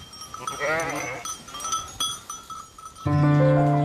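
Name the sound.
sheep bleating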